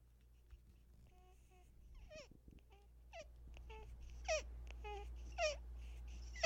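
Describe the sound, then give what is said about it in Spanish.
A three-week-old baby breathes while drinking milk with its mother, making a series of short, squeaky, hiccup-like little sounds at uneven intervals, soft, against a quiet background hum. “Se escucha como si tuviera hipo.”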